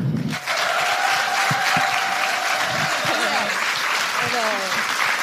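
A live audience bursts into loud, sustained applause and cheering, a dense wash of clapping with shouts and whoops riding over it, holding steady for several seconds.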